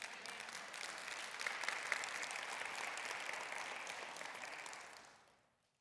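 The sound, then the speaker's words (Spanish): A church audience applauds during a sermon in a steady, dense wash of clapping that holds for about five seconds before fading out, with no talking over it. “Porque todos los que aplaudieron, gracias.”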